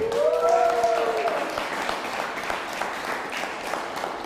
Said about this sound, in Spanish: Un fuerte aplauso.